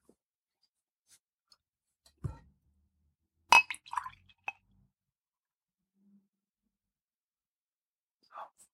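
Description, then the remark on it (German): Two tiny glasses clink and knock in a few short, scattered bursts as a drink is poured into them, with a thud and a quick cluster of clatters midway and one last faint clink near the end; no one speaks. “Dann kannst du tatsächlich doch mal einschenken vom Mikrofon.”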